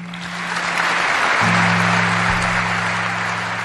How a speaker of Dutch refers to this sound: De dag begon met een lang applaus van alle Bondsdagleden voor Angela Merkel.